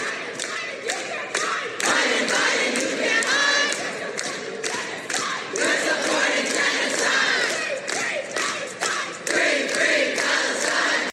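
A large crowd of hundreds of Chicago public high school students, who walked out of their schools to City Hall, chants loudly and continuously in rhythmic unison calling for a ceasefire in Gaza, with shouting voices, scattered claps and thumps filling the whole stretch.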